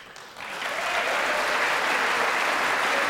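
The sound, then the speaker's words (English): Applause from Republicans following a political speech starts faintly, swells within the first second, and then holds as a steady, dense wash of many hands clapping, with no voices standing out. “took a little while for the Republicans to start clapping.”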